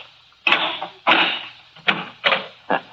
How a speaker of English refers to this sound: You see the door? Airtight, airtight, yes indeed. I'll open it.